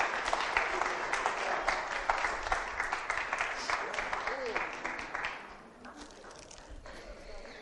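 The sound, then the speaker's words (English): An audience claps steadily in a dense, crackling burst of applause to encourage performers coming round, holding strong for about five seconds, then thinning and softening toward the end. “Big round of applause.”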